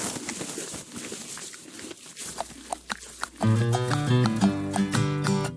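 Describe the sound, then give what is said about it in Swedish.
Irregular crunching of Robin the horse chewing hay given as his lunch, soft rustly bites repeating for a few seconds, then a bright musical jingle cuts in and plays to the end. “nu ska vi lyssna när han tuggar.”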